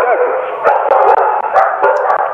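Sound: dogs barking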